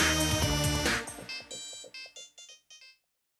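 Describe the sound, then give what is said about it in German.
A bright electronic mobile phone ringtone jingle plays, starting with a dense melodic burst, then stepping through a run of short, evenly spaced synth notes that fade out, with no talking. “Klingelton. Schicke Jamba 4, Jamba 5 oder Jamba 6 an.”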